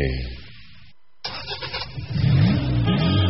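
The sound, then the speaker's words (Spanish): A car engine idles low, cuts out for a brief moment, then returns and revs up loudly, its pitch rising and falling in surges. “¡Hala! ¡Coche nuevo!”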